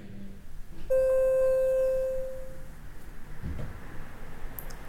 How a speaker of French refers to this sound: Ça, c'est le bruit de notification. Et quand on m'appelle. C'est les deux seuls bruits. Euh, Il fait que deux bruits, Quand j'ai des messages et quand on m'appelle.